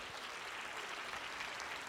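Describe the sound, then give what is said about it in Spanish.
An audience claps steadily for the Lord, a dense, continuous wash of many hands applauding together at an even level with no voices standing out. “Si usted lo cree, dele fuerte el aplauso al Señor.”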